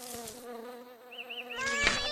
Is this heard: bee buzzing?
yes